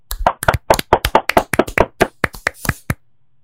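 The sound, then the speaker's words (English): A quick burst of hands clapping to mark the end of a bracket: about twenty sharp, loud claps in a fast, slightly uneven rhythm, as if more than one person joins in, then an abrupt stop into silence. “And as we do at the end of every single bracket, we are going to clap it out.”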